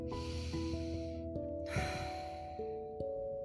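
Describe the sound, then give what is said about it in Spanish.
A deep, airy breath drawn in and then let out slowly, clear, over a soft bed of sustained musical tones with no talking. “Blancanieves solamente se limitó a respirar profundo”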